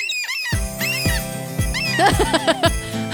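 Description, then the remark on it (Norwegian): A voice mimics a seagull with a string of high, squeaky cries rising and falling, several quick calls in a row over a steady musical background, fairly loud. “Hvordan ville det hørtes ut hvis det var måke?”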